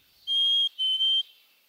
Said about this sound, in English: What we're listening to here is a chickadee from the Hudson River Valley.